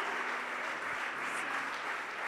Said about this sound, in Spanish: Dele un fuerte aplauso si lo está creyendo. Aleluya.